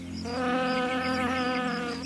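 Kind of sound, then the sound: insect, bee buzzing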